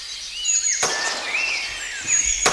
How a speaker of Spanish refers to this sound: Los pájaros que suenan ni idea, pero la escopeta es una vereta automática 9 milímetros.